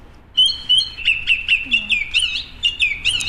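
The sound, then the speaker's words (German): Bright, high bird song played from a phone app on Helgoland: a quick series of chirpy, whistled phrases repeating in a steady rhythm, fairly loud, over a quiet background with no one talking. “da gab es dann nochmal eine Gesangseinlage von Elmas App”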